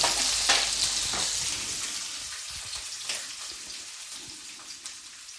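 Green chilies are added to a hot frying pan with browned almonds and cashews and crackle and sizzle, a dense hiss with sharp pops scattered throughout, loud at first and slowly easing off, with no talking.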